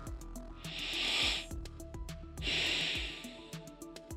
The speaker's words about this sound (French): Il les invite à se rasseoir, mais cette fois, le dos bien droit et les pieds ancrés dans la terre. Allez, on inspire et on expire.